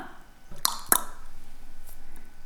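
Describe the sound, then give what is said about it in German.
A voice imitates an eye-blink clack with two quick, crisp mouth clicks in close succession, fairly sharp, followed by quiet room tone. “Es ist ein Augenklacker.”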